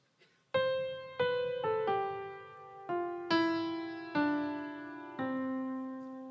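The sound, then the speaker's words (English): A descending scale of eight ringing, struck notes, each decaying before the next, played in an uneven rhythm with held notes and short pauses that turn it into a familiar melody. No voices. “And mom said, When you add the right pauses, it's now not just a normal scale, it sounds like this.”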